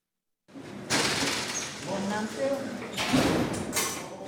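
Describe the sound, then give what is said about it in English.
Heavy prison doors at a high-security correctional facility in Stillwater, Minnesota, slide and clank shut behind a visitor heading inside, several loud metallic bangs over a sustained rumble, with indistinct voices murmuring in the background. “layers of prison doors shut behind Secretary of State Steve Simon as he heads inside”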